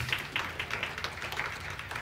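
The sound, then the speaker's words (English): A church audience claps together for the newly announced vestry officers, a soft, steady patter of crisp hand claps lasting a couple of seconds, with a low hum underneath and no talking. “So those are, yes, we can clap.”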